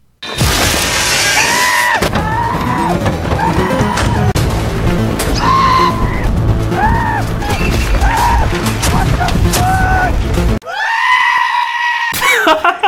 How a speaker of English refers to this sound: let's get this out of the way. Let's roll the clip of light screaming.